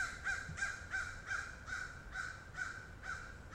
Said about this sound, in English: Oh, I think some crows discovered me recording here.